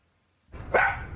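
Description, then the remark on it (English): A miniature poodle with wavy cream-colored fur lets out a single sharp bark after a moment of quiet, with a faint background hum continuing beneath it. “the miniature poodle is normally an energetic dog.”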